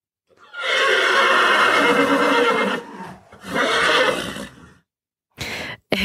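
A horse neighs loudly in a long, wavering whinny, followed by a second shorter neigh and a brief final snort-like burst. No one speaks.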